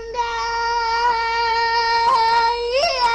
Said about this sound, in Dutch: Als je van lage naar hoge tonen glijdt, dan merk je dat niet getrainde zangers dat die dat niet goed kunnen en dat je dat ook vaak gaat horen, die overgang. We noemen dat ook wel een stembreuk.